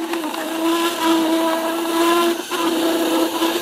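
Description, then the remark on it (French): A vertical juice extractor that has not been used for a long time runs while making juice, with a loud, steady motorized whine and grinding hiss, briefly dipping once before resuming; no one speaks. “il n'a pas été utilisé depuis longtemps, c'est pour ça qu'il fait ce bruit.”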